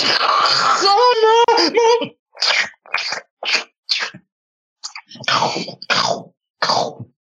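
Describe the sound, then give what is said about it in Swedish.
A voice mimics a tearing, scratching noise: a long raspy hiss with a strained vocal edge, followed by about seven short, harsh scraping bursts in an uneven rhythm. “Och du hör så här rivande ljud. Så här”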